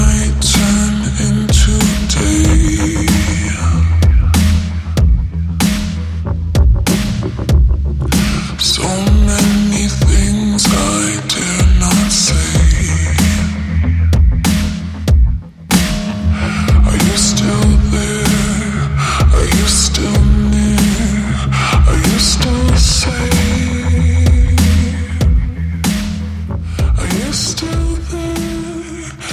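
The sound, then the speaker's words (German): A dense, loud song plays continuously with heavy low end and steady beats, carrying a female singer's own voice pitched down into deep, eerie, demonic vocals with lyrics repeated like a mantra; there is a brief dip midway before the music resumes. “transformiert sie sich gerade selber zu einer slightly dämonischen Beschwörerin, indem sie ihre Stimme abpitcht und Lyrics zum Mantra macht.”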